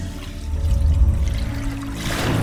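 Water sloshes and pours steadily for a couple of seconds as a water pail is drawn up from the depths of a well, with a low rumbling undertone and brighter splashing toward the end; no voices.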